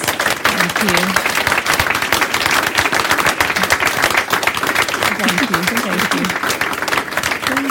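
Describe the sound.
An audience breaks into loud, sustained applause for three speakers at the end of a talk event at Litteraturhuset, a dense, steady patter of many hands clapping for several seconds, with a few voices calling out beneath it.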